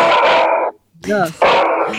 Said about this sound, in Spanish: Me mata tu perro ahí hablando